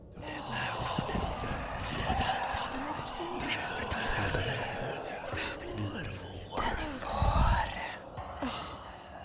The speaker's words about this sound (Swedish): Och den vänder huvudet mot dig. Och du hör de här viskningarna igen